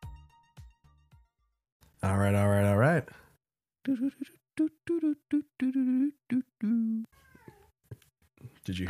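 A cat lets out a loud, drawn-out meow with a wavering pitch, followed by a string of shorter, choppier cries and murmurs after a brief pause.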